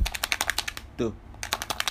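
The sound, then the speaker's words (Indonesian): A Tip-Ex correction pen rattles as it's shaken, a fast, steady run of sharp little clicks. The rattling stops briefly while a voice utters a short syllable, then resumes. “nih tip X gue kocok nih dulu emang gitu kalau misalnya itu di itu suara khas tip X tuh begitu tuh”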